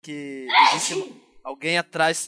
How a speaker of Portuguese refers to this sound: Saúde. É... Quem espirrou aí? Eu só ouvi um espirro. Foi. Oh, desculpa. Não, não, não tá fácil. Esse foi o espirro mais agudo que um druida já deu.